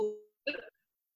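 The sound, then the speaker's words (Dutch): A voice over a call breaks up: a fading tone cuts off into silence, a brief garbled burst of speech-like sound follows, then the line goes dead quiet. “Wat, sorry, volgens mij viel je weg.”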